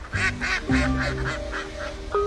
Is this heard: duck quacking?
yes